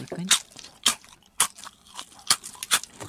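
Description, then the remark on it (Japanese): Crisp, dry crunches of someone biting and chewing a rice cracker (senbei) as an ASMR demonstration, a series of sharp crackly bursts spaced irregularly over a few seconds, with soft mouth sounds between bites. “じゃあちょっとやってみますかせんべい食べる音”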